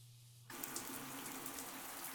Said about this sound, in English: allowing the water to rinse the grime from her hair. Bits of flesh and matter soak in a small pool of bloody water as it circles the drain. A shower has never felt so good.